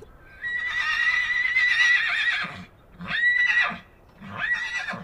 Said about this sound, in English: I found this stallion that was isolated from the rest of the herd, and so he was calling to them every every couple minutes with these very lonely, powerful kind of horse whinnies and neighs, and so that was really fun.